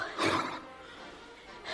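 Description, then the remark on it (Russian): A lion roars in a short, rough burst that fades into a low rumble, then another roar begins to swell at the end. No one speaks. “Что это? Львы!”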